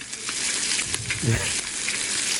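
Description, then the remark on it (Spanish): Fat sizzling and crackling steadily in a hot pan as pork skin fries to make chicharrón, the fat near the skin and muscle melting, a dense hiss with scattered pops, fairly loud, with no one talking. “Es, la, la, la cocción de la carne que se consigue de derretir la grasa cerca de la piel y el músculo del, animal. Que suena así.”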